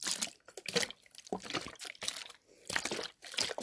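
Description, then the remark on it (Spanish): A small plastic bottle of tropical fruit juice is handled and shaken, its liquid sloshing in several bursts with crinkly, crackling plastic noises between brief pauses. No one speaks. “Y también tengo esta botellita de eh, jugo de frutas tropicales.”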